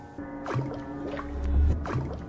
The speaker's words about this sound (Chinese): 扑通一声，石头跟手枪落进水里的声音传了上来。